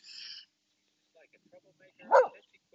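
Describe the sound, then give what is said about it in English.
A new, frightened dog growls in short, uneven bursts: a high whiny note first, scattered rough sounds, then a sharper, louder outburst near the end before it goes quiet. “Uh, he's growling.”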